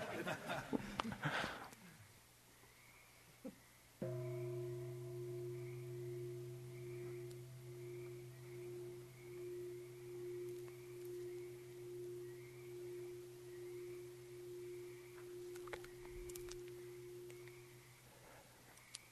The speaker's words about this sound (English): Can you know the ringing of the bell before or after the ringing of the bell? Can you know it, experience it before or after?